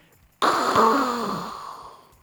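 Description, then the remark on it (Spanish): A voice imitates an opened tap with no water, as the water has run out in Montevideo, Uruguay: a single breathy, airy hiss that starts abruptly, holds for under two seconds with a faint wheezy tone inside, then gradually fades out. “Se terminó el agua. Usted abre la llave y suena así”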